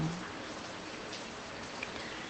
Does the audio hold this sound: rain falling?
yes